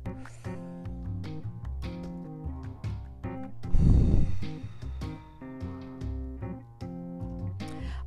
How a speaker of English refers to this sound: We're sitting still, we're calming down, we're breathing. Breathe in and out.